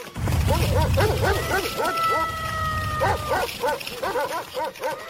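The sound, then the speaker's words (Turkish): A loud, chaotic pack of many big dogs rushing out of a door and attacking a wolf, barking all at once, rapid overlapping barks piling on each other without pause, with a drawn-out howl-like tone rising briefly through the middle. “Kapı birden açılmış çok sayıda iri köpek dışarıya fırlamış ve kurda saldırmış.”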